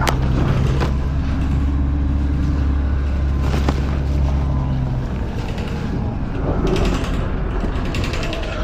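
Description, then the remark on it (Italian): A city bus, fleet number 5541 on route 57, drones with a steady low engine hum, surrounded by interior rattles, clicks and creaks. The hum fades partway through while the rumbling cabin noise continues throughout, with no one speaking. “allora matricola 5541 eh, dell'autobus sono in 57 quindi credo che sia in ritardo”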